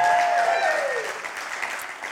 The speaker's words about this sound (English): I think we should give him a big clap.